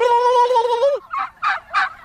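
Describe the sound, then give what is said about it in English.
Free-range bronze turkeys gobble loudly on a hot day: one sustained, wavering gobble followed by three quick, rattling bursts in rhythmic succession, with no talking over them. “We're here with your bronze turkeys today, and you hear them there”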